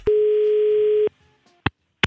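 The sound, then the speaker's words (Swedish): A single steady telephone ringback tone of an outgoing call sounds for about a second, fairly loud and clear, then falls quiet before two brief clicks near the end. “Eh, och då är det som så att nu ringer vi eh, och eh, hon får helt enkelt bestämma sig.”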